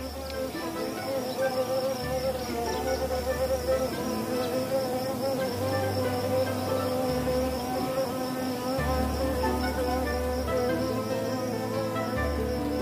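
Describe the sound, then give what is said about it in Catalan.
A carpenter bee buzzes steadily, its low droning hum shifting in pitch as it hovers and moves about, with no other sounds or voices. “Mentre en Simó, el picot verd, estava enfeinat arreglant la caseta, va sentir-se el bronzit de la tramentina.”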